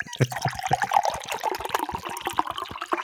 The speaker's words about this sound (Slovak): Čože nalievaš, kamarát? Čo? Nalievam jablkový džúsik zastudená lisovaný.